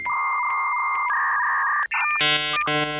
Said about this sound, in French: Le bon vieux son du modem 56K que les plus âgés d'entre nous n'oublieront pas, Madeleine de Proust sonore d'une connexion Internet d'un autre temps. Et à l'époque, pourtant pas si lointaine, du temps il en fallait pour télécharger quoi que ce soit.